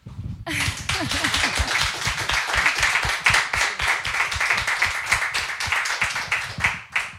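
A crowd applauds steadily for about seven seconds, dense overlapping claps forming a loud, continuous wash of sound that begins abruptly and holds at an even level throughout.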